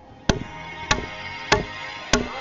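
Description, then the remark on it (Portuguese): A mother knocks four firm times on her son's door, evenly spaced and sharp, each a solid thud with a brief ring, over a quiet low background hiss. “bate na porta de seu filho e sem ele abrir.”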